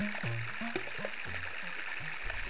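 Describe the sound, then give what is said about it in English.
Recorded beneath a glacier by scientists tracking changes in glaciers: a steady fizzing, crackling hiss like trickling meltwater, broken by repeated low, hollow tones that drop and warble, with no voices. “We're going under a glacier”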